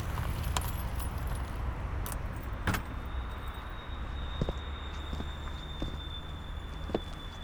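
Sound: keys jangling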